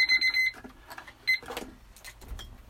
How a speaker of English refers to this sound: so how many alarms have we been through uh, four uh, four yeah